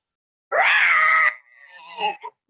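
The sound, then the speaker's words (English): An actor playing the Lion in the Pyramus and Thisbe play imitates a lion's roar: one loud, strained, sustained cry lasting under a second, then quieter, fading growly sounds and a couple of short bursts. “Well roared lion.”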